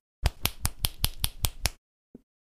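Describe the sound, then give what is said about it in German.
A quick, evenly spaced run of about eight sharp, crisp finger slaps, an index finger smacked against the middle finger (a trick called 'Schnisseln', not finger snapping), followed by a pause and one faint final click. No talking. “klatschen mit Zeigefinger auf Mittelfinger.”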